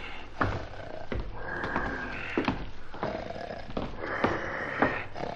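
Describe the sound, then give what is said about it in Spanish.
Loud, rasping snoring of a sleeping wolf repeats in several rough breaths over a few seconds, steady, with no talking. “cazador que pasaba por allí, al oír los ronquidos, pensó... ¿Cómo ronca la anciana?”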